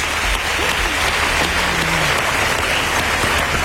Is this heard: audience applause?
yes